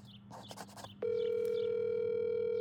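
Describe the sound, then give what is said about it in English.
A steady electronic phone ringing tone switches on about a second in and holds unbroken and fairly loud to the end, after a brief stretch of faint, muffled background sounds. “So we're going to call him. Let's see. Let's see how busy this guy is.”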